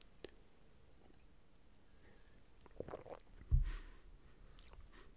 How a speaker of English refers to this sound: I just picked up some new coffee beans from um, my local place that I really, really enjoy. So I'm actually going to take a sip right now.